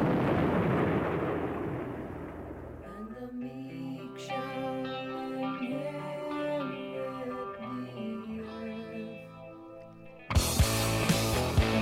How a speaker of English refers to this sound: that's from the 1812 overture and then we get all the explosions and things